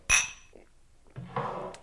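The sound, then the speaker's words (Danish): A bright, ringing clink of champagne glasses touching in a toast, one sharp chime near the start, followed by softer rustling and handling sounds. “Skål, og tak for syv gode afsnit”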